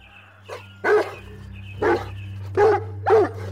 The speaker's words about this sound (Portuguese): Certo dia, passeando no parque, um cachorro enorme, muito bravo, começou a latir para ela.